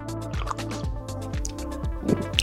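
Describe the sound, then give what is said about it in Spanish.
Someone drinking water in steady gulps, about five or six wet swallows in a row, fairly loud, with liquid sloshing and no talking. “Perdón, pero estoy tomando agua.”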